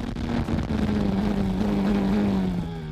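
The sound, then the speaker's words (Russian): A loud, continuous onboard engine of a Williams Formula 1 racing car screams at high revs through the Tamburello corner, sparks flying from its rear, its pitch holding steady and then dipping slightly, with rumbling road and wind noise underneath and no voices. “sparks fly from the rear end of the Williams, and we join Ayrton Senna on board for what would be his last lap”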